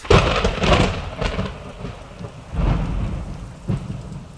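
Steady rain hisses throughout while low thunder rumbles roll in several times, loudest near the start and again midway, with no voices present.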